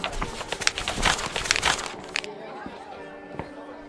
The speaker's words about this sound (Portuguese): As pessoas ao redor começam a jogar papéis em direção a Valentim, até que ele pega um deles com a mão.